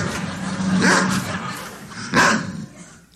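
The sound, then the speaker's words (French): A dog plays with a can a woman tossed to it, giving two sharp yips or barks about a second apart, with scuffling and light clatter in between. “Madame Lebrun a pitché une canne, une canne nette frais de sec de même au chien”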